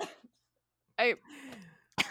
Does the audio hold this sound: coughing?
yes